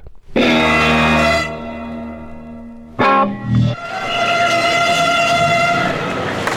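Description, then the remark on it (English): Two police sirens layered into a loud, steady chord-like blare, used as the opening chord of a musique concrète piece, that cuts off abruptly, followed by a short burst and another long sustained siren tone. No one speaks. “Two individual sounds form the loud instrumental chord at the beginning, and only when the two sounds are then played separately do you realize that that isn't a horn section, those are police sirens.”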